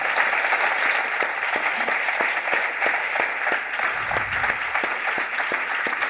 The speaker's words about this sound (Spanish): Así que el último y grandísimo aplauso para Isabel Coixet. Muchísimas gracias.